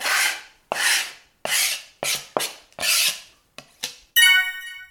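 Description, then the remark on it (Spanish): Knife sound effects: about eight sharp slashing and scraping swipes in quick, uneven succession, loud, ending with a bright metallic blade ring. No one speaks. “Y bueno, en esta sección, después de haber escuchado estos cuchillazos, está la navaja de doble filo.”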